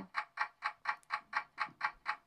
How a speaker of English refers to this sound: Is that your timer for yourself?